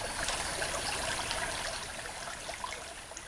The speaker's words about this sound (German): Der Wipperdurchbruch durch die Hainleite ist ein schönes Wandergebiet, auch nahe Bilzingsleben. Die Wipper plätschert durch Wiesen und Wald, Raubvögel am Himmel, seltene Pflanzen am Ufer.